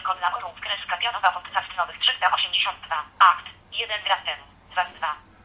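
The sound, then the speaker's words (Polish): A phone's screen reader voice reads text aloud in quick, clipped synthetic speech, sounding thin and tinny as if played through a small speaker, running continuously with brief gaps. “No, dość dziwnie to TOX czyta. W każdym razie przeczytał nam nazwę podcastu, przeczytał liczbę dostępnych odcinków podcastu oraz, że ostatni raz aktualizowany był 1 gram temu, czyli jemu chodzi o to, że aktualizowany był godzinę temu.”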